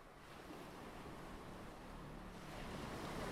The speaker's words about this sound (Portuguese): tá na, na praia, curtindo o mar